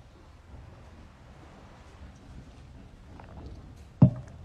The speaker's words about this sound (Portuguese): Vou até tomar uma água aqui.